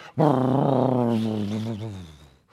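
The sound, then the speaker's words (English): A voice imitates a deep, rumbling New York City subway train passing underground, one sustained low growling tone lasting a couple of seconds, fairly loud, slowly fading at the end. “retrofit that with soundproof barriers so that you won't hear the subway”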